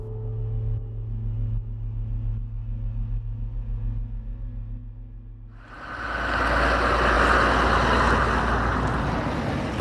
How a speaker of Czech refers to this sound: Tam jede tank, Martine? Eh, ne, tady jede auto